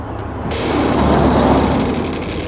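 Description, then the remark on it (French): A car drives past, its engine rumble and road noise swelling to a peak midway before easing off slightly. No voices are heard. “Voiture”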